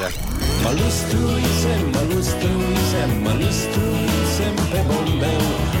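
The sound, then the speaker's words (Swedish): A Romanian pop song by a 70-year-old male pop singer, placed 79th on a Romanian chart, plays loudly and steadily, with a sung vocal line over a full, driving band arrangement that fills the whole stretch without pause. “En 70-årig gubbe som spelar pop står det på internet i alla fall.”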